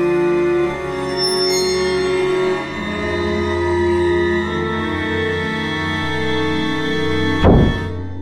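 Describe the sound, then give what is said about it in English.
Sustained orchestral film score music plays throughout, then near the end of the film a single loud, heavy door slam cuts in with a sharp thud before the music carries on. “And then the door slams.”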